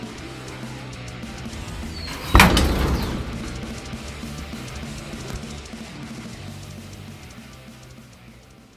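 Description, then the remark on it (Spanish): A single heavy door bangs shut a couple of seconds in, its thud echoing and fading slowly over a low, steady room hum, with no one talking. “Deja la puerta cerrada al entrar.”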